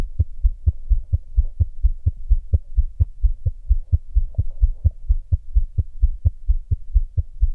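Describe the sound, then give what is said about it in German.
A fast, steady heartbeat at about 120 BPM, the soft low thumps of a newborn's resting pulse, repeating rapidly and evenly over a faint hum, clear with no voices. “Äh, ja, also es, es, klingt relativ schnell, es ist in Wahrheit aber ein Ruhepuls. Allerdings der Ruhepuls eines Neugeborenen.”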